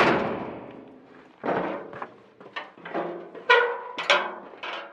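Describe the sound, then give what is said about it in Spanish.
A cabin door slams shut with a loud, ringing bang, then a string of irregular knocks and rattling thuds follows, with no voices. “La puerta de la cabina se ha cerrado conmigo dentro.”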